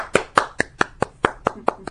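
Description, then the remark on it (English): Light, sparse clapping, about nine crisp hand claps at a steady, unhurried pace, like a polite golf clap after a touchdown in a nearly empty stadium at an SEC championship football game, with no voices. “it was like a golf clap.”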